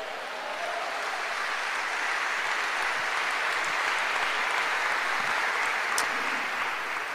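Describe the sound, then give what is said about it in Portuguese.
A crowd applauds Jesus during a worship service, clapping steadily for about seven seconds, a dense, even wash of clapping with no voices standing out and no clear pauses. “É um bom lugar para você dar um glória a Deus e um aplauso a Jesus.”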